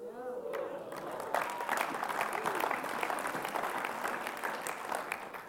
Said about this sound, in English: I'm glad that you clapped because I need 50 of you to come with me on mission to England 2018 to help run this conference.